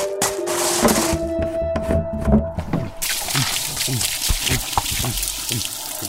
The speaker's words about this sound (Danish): Hun skyndte sig tilbage til trolden og gav den dunken, som den øjeblikkeligt tømte ned i halsen.